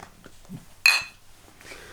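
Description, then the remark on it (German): A single bright clink of beer glasses touching in a toast, with a short ringing tone that fades within a fraction of a second. “Salute. Prost.”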